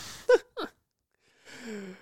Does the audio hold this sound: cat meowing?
no